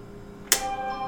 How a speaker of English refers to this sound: That's my phone.